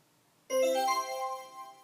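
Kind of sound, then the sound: signal or alarm, cell phone ringtone ringing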